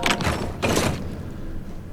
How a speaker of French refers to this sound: Oh merde une porte s'ouvre, on avance.